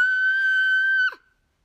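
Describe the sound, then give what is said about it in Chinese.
A loud, sustained high-pitched scream held at one steady pitch for about a second, then breaking off with a short downward slide, apparently a voice acting out a crying child kicking up and down and shrieking louder than before. “他吸吸鼻涕，踢上踢下，砰砰砰砰，大声尖叫，而且比之前更大声。”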